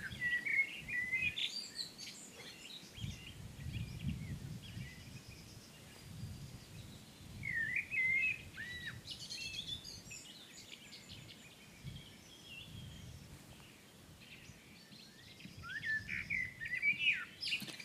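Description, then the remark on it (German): Many songbirds sing together outdoors in Hömberg, a dense chorus of overlapping chirps, trills and whistles from several directions, some bright, others softer, with occasional blackbird alarm calls between the songs and a low rumble of ambient noise underneath. “Ein Vogelkonzert aus Hömberg”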